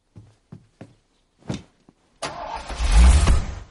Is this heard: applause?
no